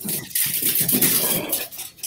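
Dogs play, a steady stretch of scuffling and light pattering, like paws scrambling and skidding on a hard floor, with no voices.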